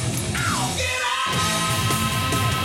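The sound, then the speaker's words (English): A loud, dense heavy metal song with rapid double bass drum pounding underneath, distorted guitars with a whammy riff and a yelled vocal that never lets up across the short stretch. “Heavy metal song. You got double bass through the whole thing.”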